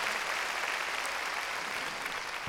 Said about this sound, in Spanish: A ver, démosle palmas fuertes a nuestro Señor.